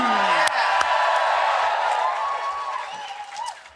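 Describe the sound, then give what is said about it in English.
A live audience at the Listening Post stage of the Latitude festival cheers through their masks, loudly and steadily, with scattered whoops and shouts rising over a dense roar of voices that eases slightly toward the end. “That is the noise there of people all cheering through their masks.”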